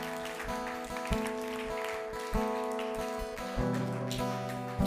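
A crowd applauding with steady, dense clapping that carries on throughout, while sustained musical tones, like a keyboard, hold underneath.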